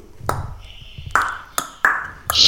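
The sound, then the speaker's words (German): Five loud, sharp tongue clicks, irregularly spaced, each popping with a bright resonant ring that briefly hangs in the air before the next. “Und wir haben immer den hier gemacht so mit der Zunge geschnackst und das hat immer durch die ganzen Dings geschallt so.”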